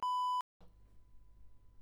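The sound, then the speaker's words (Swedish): A single loud, steady electronic censor bleep covering a name, lasting under half a second and cutting off abruptly, followed by low background rumble and faint background noise. “Och då får vi bara bipa ett namn.”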